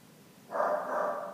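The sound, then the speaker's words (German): A dog gives a single drawn-out bark, loud, lasting almost a second after a brief quiet lead-in, with no talking alongside it. “wenn es richtig ist, bellt dreimal.”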